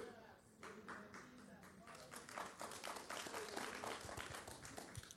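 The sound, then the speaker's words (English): About five people clap in a thin, uneven patter, the sharp claps starting sparse and growing a little denser after a couple of seconds, with a low murmur underneath. “So that it's only like five people clapping because they're like, yeah.”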